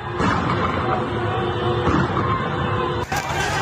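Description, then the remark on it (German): Dense, continuous street and crowd noise fills the scene as Iranian security forces move against about 200 students at Sharif University in Tehran at night, with police using tear gas and people fleeing; near the end a single sharp, loud gunshot crack cuts through the din. “Menschen fliehen, Schüsse sind zu hören.”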